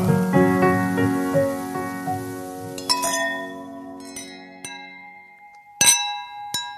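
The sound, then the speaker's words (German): Several glasses clink together in a toast, bright ringing chimes that overlap early on, then a few sharper isolated clinks, including one loud strike near the end, each tone lingering as it fades. “Prost, Prost, Prost. Zum Wohl, Prost.”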